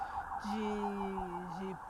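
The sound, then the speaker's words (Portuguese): An ambulance siren wails faintly as it passes outside, a steady two-tone drone holding for over a second before dipping, heard through background noise with no one speaking. “Não sei se vocês vão ouvir, mas passou uma sirene aqui. Acho que é algum carro”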